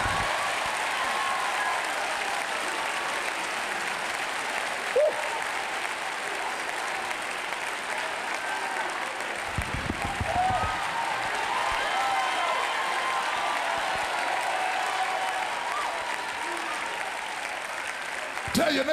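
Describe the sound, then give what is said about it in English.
An audience claps steadily and cheers for nearly twenty seconds, clapping their hands if they believe God for miracles in their house: a dense, loud wash of hand claps with scattered shouts rising over it and no break in the noise. “Clap your hands if you believe God for miracles in your house.”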